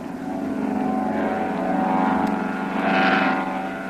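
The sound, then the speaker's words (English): A propeller seaplane roars as it takes off from the water and heads toward the trees on the other side, its engine a steady, buzzing drone that swells louder near the end. No one speaks. “There he goes. He's off the water.”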